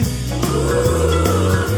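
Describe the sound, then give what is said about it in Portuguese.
Voices imitate a cow's moo in loud, drawn-out, low tones, with a few swelling pulses one after another over a steady musical background, in a children's song where listeners imitate the sounds of named animals. “Ele fez as vacas que.”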